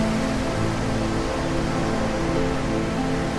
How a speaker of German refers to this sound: Und nun achte auf den Rhythmus der Wellen und höre deren Rauschen. Passe deine Atmung diesem Rhythmus der Wellen an, die hier seit Jahrtausenden an das Ufer schlagen.